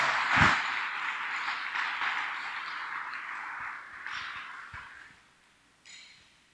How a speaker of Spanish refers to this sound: Dale fuerte ese aplauso al Señor.